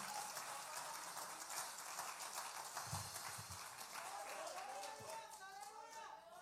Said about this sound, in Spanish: el aplauso fuerte al caballero de la cruz en el día de hoy.